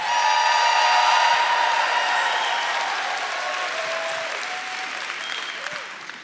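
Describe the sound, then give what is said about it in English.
A large crowd claps and cheers together, a dense, steady wash of applause with whoops and shouts on top that gradually eases off over several seconds. “All the Jonathans make some noise in this place.”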